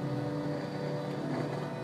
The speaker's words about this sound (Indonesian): gue lagi nyetir juga macet banget ini